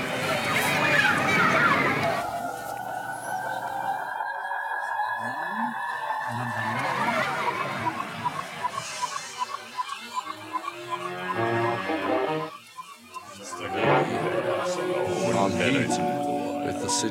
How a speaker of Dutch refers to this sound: Dus hier hoorden we de, de tape terugdraaien. Is ook weer van zo'n grappig dingetje wat je dan ontdekt.